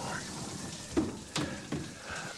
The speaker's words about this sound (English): I'm gonna put the shower on, let it warm up.